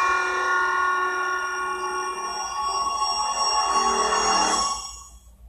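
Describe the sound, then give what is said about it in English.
A cell phone rings with a sustained, bright electronic tone, holding steady and fairly loud for about five seconds before quickly fading out. No one speaks. “Cell phone goes off. It's his cell phone.”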